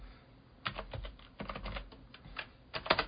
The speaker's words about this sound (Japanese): 俺のこのキーボード結構打ち込んでないこと多くてさ